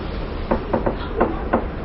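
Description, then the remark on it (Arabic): A door is pushed shut firmly, producing a handful of short wooden thuds and knocks in quick succession, over a steady low background hum with no voices. “ممكن نضرب الباب بس”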